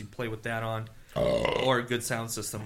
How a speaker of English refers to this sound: bless you